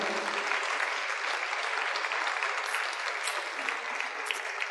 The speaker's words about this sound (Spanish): Y un aplauso al Señor, ¿verdad? Porque es real.